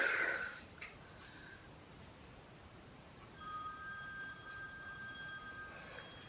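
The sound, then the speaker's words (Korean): After a brief breathy snort and a moment of quiet, a telephone starts ringing with a steady, bright electronic trill that continues at moderate loudness until the end. “자, 전화는 내가 받을 테니까 자네는 캔버스나 꺼내게 알겠지?”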